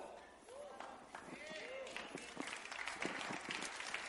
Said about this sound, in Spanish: Em, qué bueno que aplaudiste, pero no, te he contado el resultado.